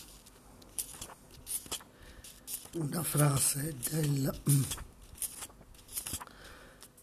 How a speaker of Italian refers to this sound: Scusate, sto scorrendo le pagine.